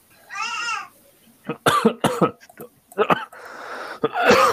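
coughing

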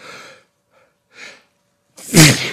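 sneeze

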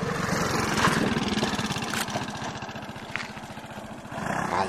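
motorcycle engine

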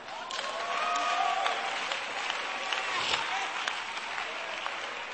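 audience applause

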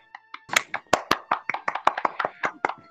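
applause sound effect

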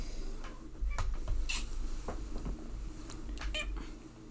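cat meowing

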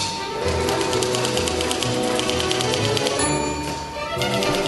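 typewriter typing

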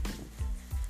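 rain falling

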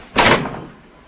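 door being shut

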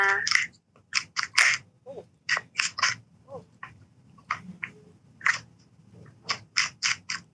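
shuffling tarot cards

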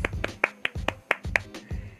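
hand clapping

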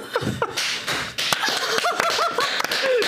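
applause

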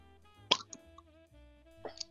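beer bottle being opened

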